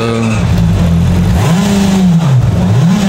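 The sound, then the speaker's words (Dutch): A car engine revs repeatedly through its exhaust, a loud, throaty roar that climbs and falls in pitch in several sweeping surges, with no one talking over it. “heb je ook iets aan het geluid laten doen of wel een andere uitlaat erop?”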